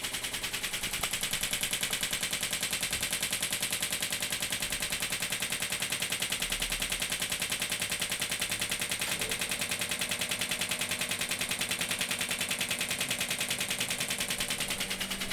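A rapid, steady stream of sharp pistol-like snapping pulses fires continuously, evenly spaced like a fast machine, with no voices over it; each pulse is a strike against the Achilles tendon during a treatment.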